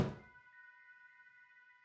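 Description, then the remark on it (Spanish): A patio door slams shut with one heavy, dull thud, followed by a thin metallic ringing that hangs on steadily for a couple of seconds. No voices are heard. “Pasó el tiempo y me di cuenta que eran cerca de las 20-30 horas, cuando escuchaba que los trastes se quebraban, así como el azote de la puerta del patio.”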